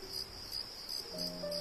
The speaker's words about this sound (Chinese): 嗯，知了可是被誉为昆虫世界的大歌星。嗯，有小朋友可能要问了，知了也能当大歌星吗？